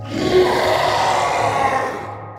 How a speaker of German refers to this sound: Und danach brüllen dann halt, brüllt eine relativ große Gruppe von sehr, sehr lauten, sehr, sehr tiefen sehr, sehr unmenschlichen Stimmen. Auch sehr unorkisch? Ziemlich laut und tief für Orks, ja.